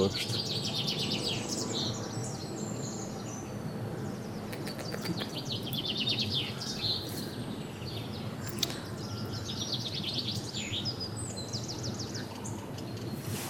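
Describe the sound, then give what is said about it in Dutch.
Sharp, short great spotted woodpecker calls ring out among a busy chorus of chirping and twittering songbirds in the Vliegenbos woods, set against a steady outdoor background hum. “Ja, grote mond specht.”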